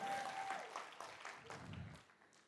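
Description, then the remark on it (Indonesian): An audience claps for Jesus in a dense, steady burst of applause that stays loud for about two seconds, then begins to thin and fade, with a brief faint tone at the start. “Kita kasih tepuk tangan buat Tuhan Yesus yang luar biasa.”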